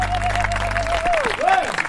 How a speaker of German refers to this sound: Schöner. Schöner Applaus.